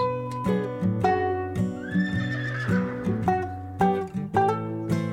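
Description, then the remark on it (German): A ridden mustang whinnies in a long, rising then falling cry over a steady clip-clop of hooves at an easy trot, the hoofbeats falling in an even, repeating rhythm throughout. “In lockerem Trab die Zügel über dem silberbeschlagenen Holm verknotet, lenkt Lasseter seinen Mustang mit sanftem Schenkeldruck.”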